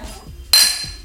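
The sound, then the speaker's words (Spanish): A single bright clink of two drinking glasses of wine tapped together in a toast in a recording booth, sharp, its ringing tone fading over a fraction of a second against quiet background noise. “Vamos a brindar.”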